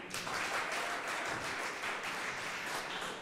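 A crowd at a German event applauds steadily for a few seconds to vote for who should conduct an interview, a dense wash of many overlapping hand claps with no single beat standing out, fairly even in loudness throughout.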